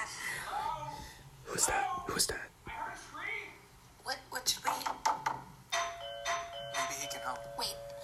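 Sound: doorbell ding-dong chime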